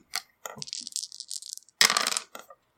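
Three dice clatter and tumble across a hard tabletop, rolled for an attack in a tabletop game: a quick bright rattle with scattered clicks, then a louder burst of rolling before they settle, with no talking.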